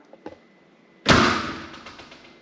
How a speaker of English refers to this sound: When the door closes and it makes a loud noise, you can say you slammed the door. Maybe you're really mad. Looks like this is glass, so I don't want to do it too hard and break it, but I kind of slammed the door there.